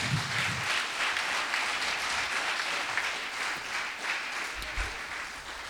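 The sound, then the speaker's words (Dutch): Sustained audience applause for the speakers called to the front, a dense steady wash of many hands clapping at an even loudness for several seconds, with no one speaking over it. “Maar laten we nog even een applaus geven, deze mensen.”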